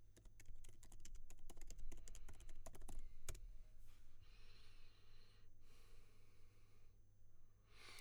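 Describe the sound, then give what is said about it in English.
Rapid typing on a computer keyboard while searching online for famous piano players, a dense burst of clicking keystrokes for about three seconds, then a few soft breaths and quiet rustling as the tapping stops. “But I've just I've just googled famous piano players because I, I, don't care.”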